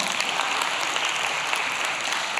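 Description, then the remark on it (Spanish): An audience applauds itself after all pointing at themselves in an experiment, a dense wash of many hands clapping at once with no pauses, fairly loud and sustained throughout, with no talking heard. “Dense un aplauso porque hicieron un gran trabajo.”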